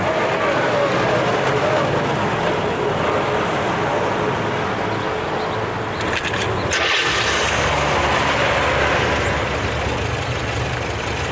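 car engine running

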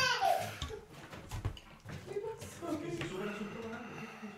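young child crying

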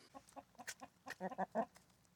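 chickens clucking

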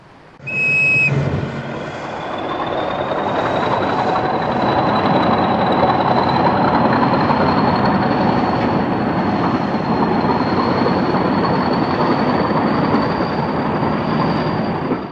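passing train on rails

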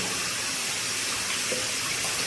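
water running

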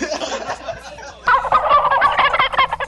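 turkey gobbling sound effect

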